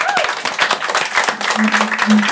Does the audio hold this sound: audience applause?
yes